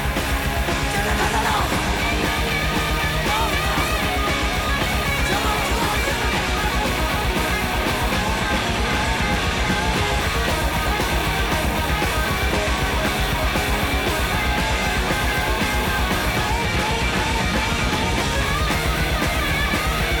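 A loud, dense heavy metal song from 1979 plays continuously, with fast pounding drums and thick distorted guitars filling the whole stretch at a steady, driving intensity.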